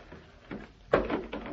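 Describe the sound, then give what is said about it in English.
An old wooden chair creaks and knocks as it's moved, then a sudden louder clatter as it comes apart, followed by a few rattling thuds of loose pieces. “Well, I just wanted to look at this chair. I started moving it, and it came apart.”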